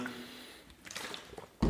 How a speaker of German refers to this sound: Wenn wir jetzt eh schon bei dem Punkt sind, nehme ich direkt wieder einen Schluck.